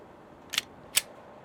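Two sharp metallic clicks about half a second apart, crisp against near silence, as a loaded pistol is cocked.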